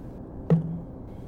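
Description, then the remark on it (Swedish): A single sharp knock of a die rolled onto a tabletop, landing on two, fairly loud, with a short hollow ring fading quickly against a quiet background. “Slå en tärning.”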